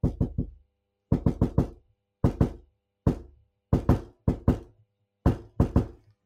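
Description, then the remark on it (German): Sharp knocks on a hard surface tapped out as a Morse code rhythm, in short clustered bursts of one to four raps with pauses between. No voices. “das hätte er eigentlich klopfen müssen, hat er aber nicht.”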